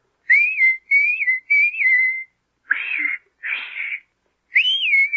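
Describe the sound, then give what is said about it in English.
A short whistled call, shown to Pinocchio as a signal to use when help is needed: three quick bright phrases, a pause, two breathier notes, then one more phrase. Clear, with no talking. “And any time you need me, you know, just whistle like this.”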